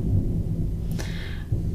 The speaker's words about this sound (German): Oh, jetzt kommt der Gewitter.